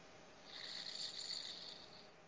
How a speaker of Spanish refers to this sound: Escúchalo, escúchalo, vamos a escucharlo roncando.